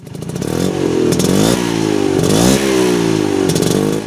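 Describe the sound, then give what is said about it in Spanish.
A two-stroke Vespa scooter with a four-speed gearbox revs loudly and steadily, its buzzing pitch climbing, dropping and climbing again three times as if shifting through gears, with a rattly, raspy edge and no talking. “si hacen una Vespa eléctrica, es decir, ah, sin el silbido característico, ¿se sube usted?”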